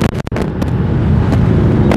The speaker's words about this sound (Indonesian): perempatan kalau lurus ke arah meruya kalau belok kanan ke arah puri ini padat juga banyak kendaraan padat ya terlihat angkot masih ada angkot M11